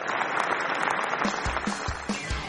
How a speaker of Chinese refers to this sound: 同学们，今天我们要选班长，让我们掌声欢迎两位班长的候选人。